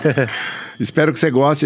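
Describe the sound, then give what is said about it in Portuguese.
Wine glasses clink once in a toast, leaving a short bright ringing tone that fades between a laugh and a voice speaking. “Depois do brinde.”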